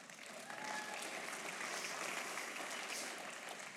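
An audience breaks into a round of applause for a volunteer called up by the speaker, dense overlapping clapping that swells and holds steady at a moderate level for several seconds with no one speaking.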